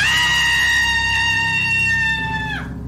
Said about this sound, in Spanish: Fue un aullido humano, un grito de mujer que le puso los cabellos de punta.